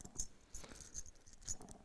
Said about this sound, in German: Dies hier ist mein aktueller Schlüsselbund. Da sind zwar, wie man unschwer erkennen kann, nur drei Schlüssel und ein USB-Stick dran, aber alle drei sind sehr wichtig.